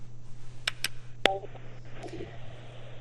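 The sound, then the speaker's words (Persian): Telephone dialing as the Radio Ashna call-in programme of Voice of America places a call to its first listener: a few short, sharp tone bursts and clicks, then a brief electronic chirp as the call connects, all over a steady low hum with no one speaking. “برنامه را آغاز میکنیم و اولین شنونده برنامه را میگیریم”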